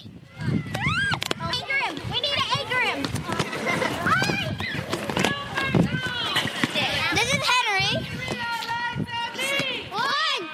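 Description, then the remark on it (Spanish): A busy schoolyard at recess: many children's voices chatter and shriek over one another while running footsteps patter throughout, loud, with a constant crowded hubbub. “Muchos sonidos del recreo, un poco de tralala”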